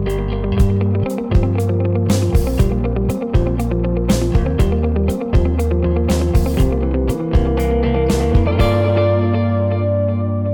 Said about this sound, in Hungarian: között podcast vadonatúj intróját hallhattátok, mégpedig Csiba Gábor Csibusz tollából, gitárjából és egyéb hangszereiből